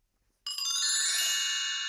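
A telephone rings with a bright, sustained electronic tone that starts abruptly after a brief silence and holds steadily at fairly loud level, with no voices.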